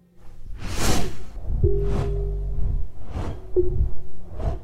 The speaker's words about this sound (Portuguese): Foi quando eu ouvi um barulho um barulho de asas, asas grandes. Um morcego ou uma coruja não, não faria aquele barulho.